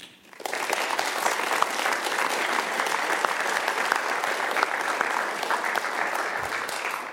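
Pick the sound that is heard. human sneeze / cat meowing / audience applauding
audience applauding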